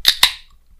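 A bottle of Sierra Nevada Bigfoot Barley Wine Style Ale being opened: two quick, sharp metallic snaps in rapid succession as the cap pops off, followed by a brief fading fizz, with no voices.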